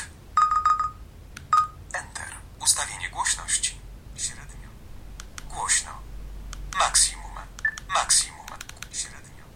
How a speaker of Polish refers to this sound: Ustawienie dźwięku. Długi dzwonek. Krótki pip.